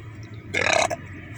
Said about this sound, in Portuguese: Vontade de arrotar.